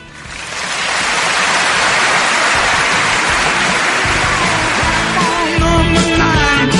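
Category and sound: crowd, applause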